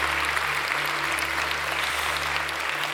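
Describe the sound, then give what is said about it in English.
A large church audience claps steadily in sustained applause, celebrating those who prayed to be born again; a dense wash of many hands with a low hum underneath and no voices standing out. “Come on, church, let's celebrate with everybody that prayed that prayer to be born again.”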